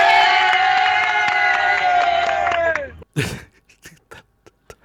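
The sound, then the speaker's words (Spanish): A crowd of football fans in Seville, holding tickets for the UEFA final, lets out a long, loud, sustained whooping cheer that holds steady for about three seconds, then sags in pitch and cuts off. A brief shouted burst and scattered small noises follow. “Ya están, de fiesta estos.”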